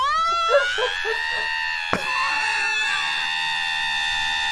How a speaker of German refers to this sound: Ein Wecker, der schreit. Ach, ist das schön.